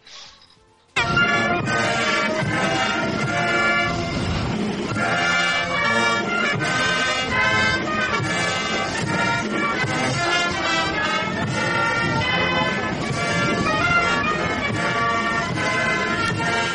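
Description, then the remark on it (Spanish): A brass band in a foreign country plays a national anthem at full volume, with blaring horns and sustained chords carrying a steady march-like melody after a brief quiet start, with no voices. “Y, y bueno, pues el hombre ha tenido que aguantar estoicamente como suena nuestro himno por aquellas, por aquellas latitudes.”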